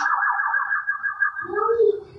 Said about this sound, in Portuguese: Peraí, peraí, peraí, ambulância, ambulância, ambulância.